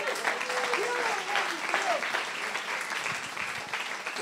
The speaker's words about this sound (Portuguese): Não, não, aplaude Jesus aí.